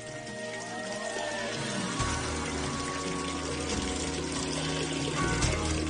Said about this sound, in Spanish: En la base de este túnel, un cauce subterráneo de agua. El agua fluye a lo largo de este conducto durante un kilómetro hasta llegar al castillo.